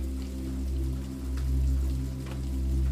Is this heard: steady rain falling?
yes